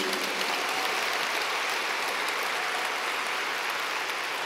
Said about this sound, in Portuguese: É a palavra de Deus, você pode aplaudir livremente.